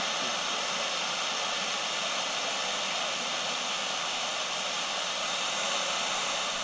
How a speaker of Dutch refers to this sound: na dat drukke zwembad is het eigenlijk wel lekker om gewoon even alleen naar die ruis te luisteren.